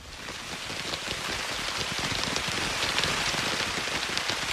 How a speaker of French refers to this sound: Le ah. tapotement a le dos large, vois-tu, parce que ça, c'est de la pluie qui frappe euh, la, surface hein. d'une tente dans un terrain de camping.